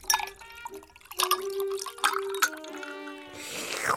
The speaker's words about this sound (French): Après avoir terminé son whisky, Al décide de se faire couler un petit bain.